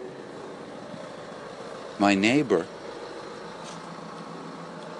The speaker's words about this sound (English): has he his car running? He has. He's left his car running.